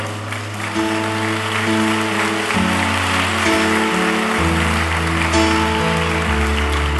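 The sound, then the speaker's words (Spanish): A crowd in Mexico claps steadily for the Lord for several seconds, a dense continuous patter, while sustained keyboard or organ chords play underneath and shift in pitch. “Dele un aplauso al Señor.”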